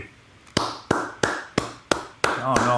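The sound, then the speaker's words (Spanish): Slow, steady applause from a single pair of hands: about six sharp claps evenly spaced, with a low murmur underneath and a voice starting to speak over the final clap. “acompáñenos con el aplauso, por favor.”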